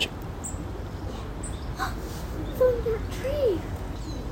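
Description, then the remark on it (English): A small bird with a red top to its head, a green belly and a long tail calls faintly outdoors, giving a few short, high chirps spaced apart, while a person gasps softly over a steady background hiss. “Are oh, we listening to birds?”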